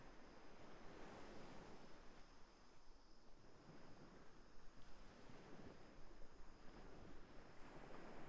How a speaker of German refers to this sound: Und bei deinem fünften Schritt lässt du deinen Blick über den leeren Strand schweifen. Und hörst den Wellen zu.